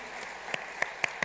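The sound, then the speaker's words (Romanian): An audience applauds the young people of the church in a steady, soft patter, with a few sharper individual claps standing out before a voice begins at the very end. “Ce ziceți, ei aplaudăm pe cei tineri?”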